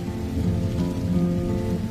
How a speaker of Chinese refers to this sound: 天空忽然下雨了